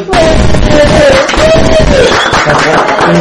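Loud, dense applause welcoming a guest to a show fills about three seconds without a break, with a voice or whistle-like cheer rising over the clapping. No speech is heard.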